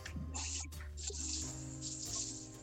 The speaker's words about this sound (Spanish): Se escucha mucho el agua. Estoy cocinando, estamos cocinando, les aclaro.